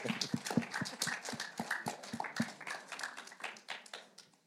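A short burst of applause from a small group, with dense, uneven hand claps overlapping at a steady moderate level, then thinning out and fading toward the end.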